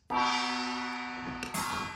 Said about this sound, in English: Jesus Christ fucking gong isn't cool.